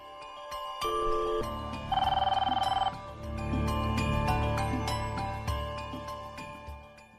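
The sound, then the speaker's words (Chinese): A phone ringing for an early-morning call to a young listener: a bright, melodic ringtone with sustained chiming notes and a rapid rattling trill partway through, moderately loud and playing on its own with no voices. “我们就是因为时间太晚了，所以呢，我们就是在今天一大早的时间呢，跟他做了一个啊连线啊，有了一个通话。”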